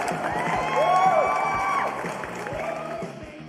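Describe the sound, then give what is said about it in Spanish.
A crowd bursts into loud applause and cheering, with steady clapping, whoops and rising whistles over a dense roar that fades slightly after a couple of seconds. “Un aplauso.”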